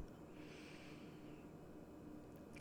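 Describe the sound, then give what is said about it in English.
A single long, slow deep breath drawn in through the nose, steady, with a soft airy hiss lasting a couple of seconds; no talking. “So let's do a deep breath together in through the nose”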